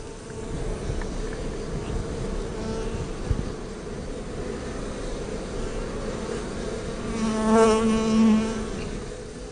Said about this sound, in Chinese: 没有错，这就是蜜蜂飞翔的声音。